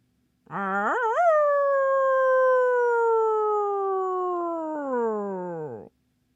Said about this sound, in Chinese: 一声嗷叫打断了他的念头。糟糕！是狼群跟踪着皮迪克的脚印，正虎视眈眈的朝他走来。